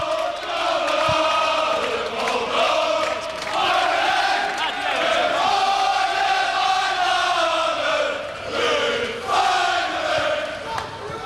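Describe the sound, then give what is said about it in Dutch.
A large crowd of Feyenoord football supporters sings and chants together as the Inter team bus arrives, a sustained, loud roar with voices swelling and dipping continuously throughout, with no pause or break. “En luister even naar die Feyenoorders die gaan zingen als Inter aankomt.”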